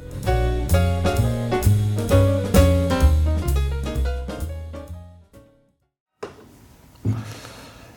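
A pop song's final bars play loud, with punchy rhythmic chords that stop abruptly, followed by a second of silence and then a couple of soft, noisy hits.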